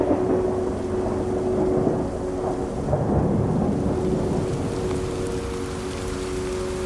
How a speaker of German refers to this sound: Aus den Wolken fällt das Wasser wieder als Regen auf die Erde.